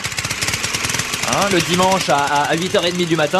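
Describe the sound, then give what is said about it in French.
An old, vintage lawn mower engine chugs with a fast, rough, rhythmic putter, loud at first, then continuing under a man's voice as he starts talking over it. “Eh attendez, ben, attendez, ça c'est une tondeuse. C'est une tondeuse.”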